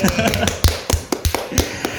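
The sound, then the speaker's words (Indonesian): A short burst of hand clapping, about eight sharp, crisp claps in a loose, uneven rhythm, fairly loud and with no one talking over them. “Tepuk tangan buat kita semua.”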